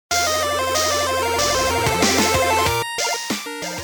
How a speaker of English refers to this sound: Our theme music was provided by